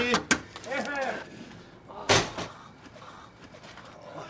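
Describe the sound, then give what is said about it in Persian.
A door slams shut with a sharp, loud thud, following an earlier brief bang and some vocal sounds, then a quieter rumbling background lingers. “در ببند”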